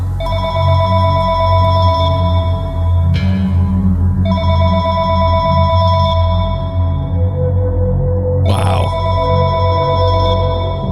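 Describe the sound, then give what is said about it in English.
A telephone rings with loud, sustained electronic tones over a low droning hum, breaking off briefly partway through before resuming; a voice gives a short exclamation near the end. “Call from unavailable.”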